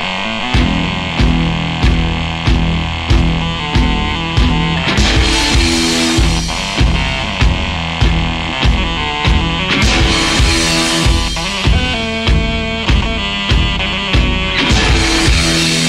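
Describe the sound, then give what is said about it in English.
Loud, gritty distorted electric guitar chugs through a dense rock mix, driven by a steady pounding drumbeat, with the texture thickening into a fuller wall of sound partway through. “got the idea of dirtying up the sound of an electric guitar”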